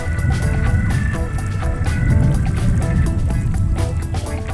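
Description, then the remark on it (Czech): Steady, dense rain from a thunderstorm in the Baltics pours down with continuous splashing and dripping that barely varies over a few seconds. No thunder stands out, and no one speaks. “tenhle týden trávím spoustu času mezi žábami v Japonsku nebo bouřkou v Pobaltí.”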